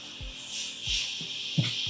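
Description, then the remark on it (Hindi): Steady gritty rushing and scraping of gravel being dumped at a construction site outside, where gravel and cement are being poured, with a few dull low thumps spaced irregularly throughout, the loudest near the end. No voices are heard. “भाई बाहर कंस्ट्रक्शन चल रहा है यहाँ बजरी सीमेंट लोग डालते हैं यहाँ आवाज आती रहती है”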